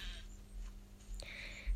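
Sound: sheep bleating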